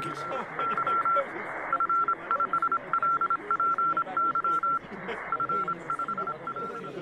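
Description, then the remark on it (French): A steady, high-pitched Morse code telegraph tone keys on and off in a rapid pattern of short and long pulses, running throughout over a dense, murmuring background. “l'Américain Samuel Morse, avec son système de télégraphie basé sur une succession d'impulsions courtes et longues”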